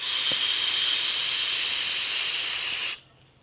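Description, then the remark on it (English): A loud, steady airy hiss of air being drawn through the open top airflow of a vape RDTA, turbulent and breathy, holding for about three seconds before cutting off abruptly. No one speaks. “It makes it far too airy and it's incredibly loud and it makes it really super turbulent.”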